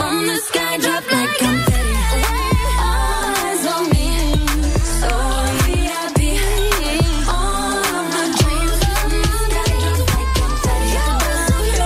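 An upbeat pop song plays loud and full for the whole stretch, with punchy, steady beats, deep bass and bright melodic vocal lines layered over the mix.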